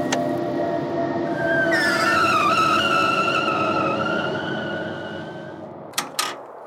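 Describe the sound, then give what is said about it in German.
An engine rumbles steadily, then brakes let out a long, wavering high-pitched squeal for several seconds as the vehicle slows to a stop at a balcony, followed by two sharp clunks. “Langsamer, Leute, langsamer. Bremsen, bremsen.”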